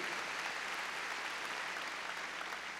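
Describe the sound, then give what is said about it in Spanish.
An audience claps loudly and steadily in praise of God, a dense wash of many hands with no pauses, filling the whole clip without any voices standing out. “A ver, démosle palmas fuertes a Él.”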